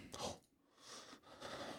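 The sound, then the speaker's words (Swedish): A soft yawn: a few breathy, drawn-out exhalations rising and falling over a couple of seconds, with no talking around it. “Ursäkta, jag gäspar här.”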